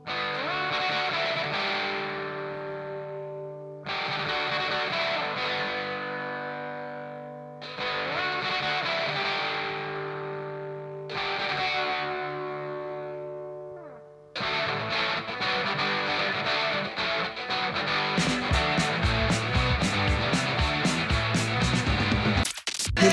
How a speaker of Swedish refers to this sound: Det här är väldigt tidigt 80-tal, eh, nordirländsk eh, punkrock.